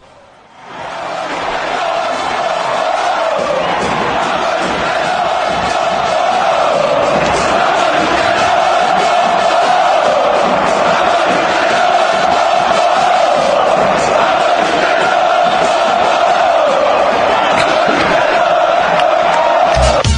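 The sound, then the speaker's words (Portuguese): A large stadium crowd of football fans chants and sings in unison for club idol Lucas Lobos, a loud, sustained roar of voices that swells in after a brief quiet start and holds steady throughout. “Mas antes vamos ouvir a torcida cantando claro.”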